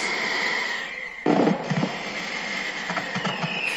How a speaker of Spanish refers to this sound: entonces nos vamos a quedar con el fondo ah, ambiente de los cohetes por el Día de la Virgen. Así es.